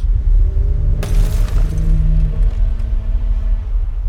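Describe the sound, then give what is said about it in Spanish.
A deep, steady rumble of a shaking lighthouse tower fills the background as a sudden loud crash of the lighthouse glass shattering bursts in, followed by a second or so of scattered crackling shards falling before the low rumbling carries on alone. “Abrazó el faro y arañó los vidrios que cayeron hechos trizas sobre nosotros.”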